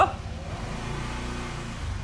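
A motorcycle engine drones past, its low, steady rumble holding fairly constant for a couple of seconds with a slight rise at the end.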